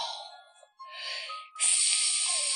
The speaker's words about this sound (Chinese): 从过道里飞起来，刮起了一阵可怕的冷风。